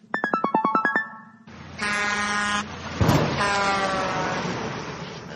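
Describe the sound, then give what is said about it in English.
A quick run of bright chiming notes gives way to loud, blaring horn blasts from a truck on a road: a shorter honk, then a long sustained one over rumbling traffic noise, with no voices. “The little bird just got hit by the truck.”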